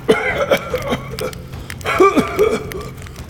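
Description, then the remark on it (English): A man coughs painfully after inhaling a lungful of smoke, in two raspy, strained clusters of short bursts separated by a brief pause, with hoarse, voiced gasps mixed in. “Taking in a lungful, he coughs painfully.”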